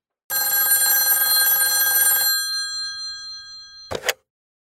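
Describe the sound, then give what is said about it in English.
An old-fashioned telephone bell rings loudly for about two seconds, its metallic jangle then fading away, followed by a brief clatter like the receiver being picked up. “Um, at this, the phone rings”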